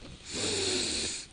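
A single deep, steady inhale through the nose, a breathy airy rush lasting about a second, with no talking, taken as part of a meditation exercise.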